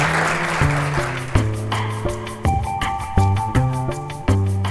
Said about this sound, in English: And let's have another round of applause for our amazing, thank esteemed panelists.